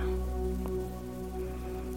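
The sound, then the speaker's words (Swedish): Steady rain falling continuously, a soft even patter with no pauses, accompanied by a faint low humming drone underneath. “Vi kan använda olika verktyg och tekniker för att slappna av och lugna oss. Och regn är en fin sån.”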